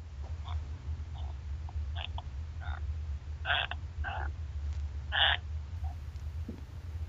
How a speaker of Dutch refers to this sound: Hoor je dat? Ja. Ja? Een soort kikkers eigenlijk. nee, het zijn gewoon eh, mijn voeten op het hout.